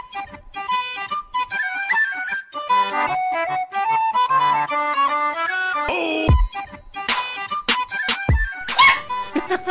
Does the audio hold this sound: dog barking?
yes